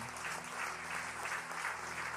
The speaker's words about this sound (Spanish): Increíble. Dele ese aplauso al Señor.